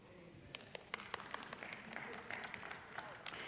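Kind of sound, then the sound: crowd, a few people clapping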